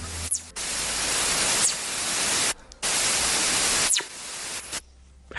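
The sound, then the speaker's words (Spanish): A recording from outer space: loud bursts of crackling radio static cut in and out with short gaps, while a few faint, quick descending whistles sweep through the hiss like bird chirps. “Pues mira, no, no solo os voy a enseñar un sonido, os voy a enseñar un misterio del espacio exterior.”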